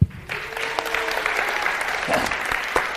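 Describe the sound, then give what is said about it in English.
A crowd of people claps steadily for a few seconds, a dense patter of applause with scattered louder hand claps, sustained throughout, welcoming a staff member being introduced at One Church. “Can y'all give it up”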